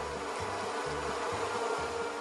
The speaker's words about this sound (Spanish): y me falta el tercer ingrediente, el 85% de la fuerza laboral polinizadora de los Estados Unidos, o sea, las abejas.